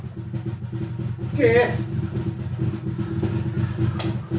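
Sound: earthquake rumble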